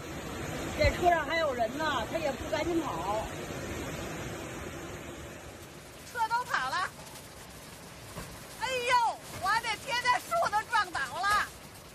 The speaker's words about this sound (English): Videos on social media showed a sea of flooding near the city's Fifth Ring Road, with bridges down and cars washed away. Another video captured brownish floodwaters gushing down the main streets and pouring into residential areas.